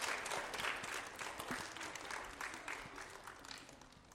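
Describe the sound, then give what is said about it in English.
A crowd claps steadily for several seconds, a dense patter of many hands with no voices over it, holding a fairly even level before easing slightly toward the end, applauding a list of named school students from fifth to eighth grade. “Okay, yes, give them all a round of applause.”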